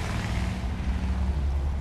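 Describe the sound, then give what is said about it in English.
A U-Haul moving truck's engine drones and strains uphill on an incline in a steady, low, rough rumble, backfiring and struggling, loud, with wind-like hiss over it and no voices. “Is that a U-Haul? That's a U-Haul. That thing it doesn't sound very good. It's like backfiring.”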